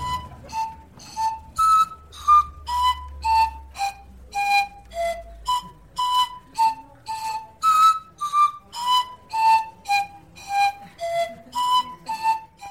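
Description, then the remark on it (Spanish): The basic melody of the hula hula, a short piece of bright, whistle-like notes played at a steady pace of roughly two notes per second. It sounds clear, with no voices, and a faint low hum appears early on. “Es, es una pieza musical corta que van a escuchar ahora.”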